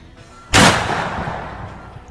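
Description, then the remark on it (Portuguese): A single loud gunshot sound effect cracks sharply, followed by a long reverberant tail that slowly fades over about a second and a half, heard alone without any talking. “É, eu vou Vou continuar atirando.”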